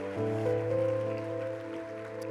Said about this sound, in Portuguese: Dê um brado ao Senhor e aplaudo neste lugar.